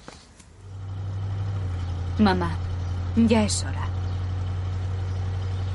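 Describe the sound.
A steady, low engine drone hums inside a car cabin throughout, constant and even, while a voice speaks a short line over it partway through.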